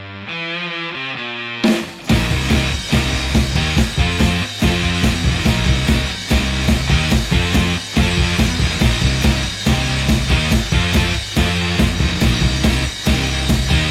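A psychedelic jangle rock song: a brief soft sustained intro, then the full band crashes in with bright strummed guitars and a steady driving drumbeat, loud and dense throughout, no vocals yet.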